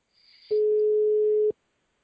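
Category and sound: signal or alarm, phone call ringing tone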